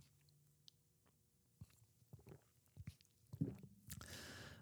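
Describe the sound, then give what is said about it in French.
Someone takes a sip of beer, with soft wet mouth clicks and gulps spaced over a few seconds, then a breathy, hissing exhale at the end. No one speaks. “On va prendre une gorgée d'ailleurs.”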